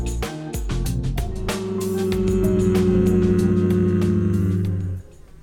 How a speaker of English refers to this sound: And although that was a great experience, it was not that great on the recording because I think we were a little nervous and the fly was buzzing around the room and it just created an awkward situation that I didn't want you to have to sit through.